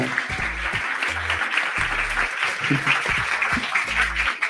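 An audience applauds steadily for several seconds, a dense, even wash of many hands clapping, with brief low voices or shouts breaking through underneath.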